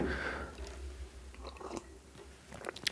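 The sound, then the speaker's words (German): Quiet mouth sounds of someone sipping water: small wet clicks and a gulp, with a soft rustle near the end and no talking. “Ich nehme noch einen Schluck Wasser.”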